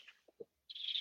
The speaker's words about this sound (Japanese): なんかあの、はい、鳥の声が聞こえてますか